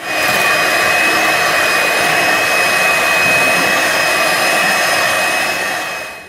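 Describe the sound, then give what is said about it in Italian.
An electric hand whisk whirs steadily as it beats egg yolks with half the sugar, 60 grams, added: a loud, constant high-pitched motor drone with a slight rattle that runs for about six seconds without pause. “Adesso, però, a mano, o meglio ancora con l'utilizzo di fruste elettriche, montiamo i tuorli, a cui avremo aggiunto metà dello zucchero, 60 grammi quindi.”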